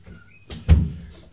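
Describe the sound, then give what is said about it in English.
A dog bangs a door open on her own as she comes into a room: two quick knocks, a lighter tap followed by a loud, heavy thud with a low boom, with no voices. “just so people know at home we've got this dog and she can open the doors on her own. So that big banging her, you heard was her coming into the to the room.”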